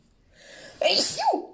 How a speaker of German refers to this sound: Soll ich dein Niesen drinnen lassen? Ich kann dein Niesen auch drinnen lassen.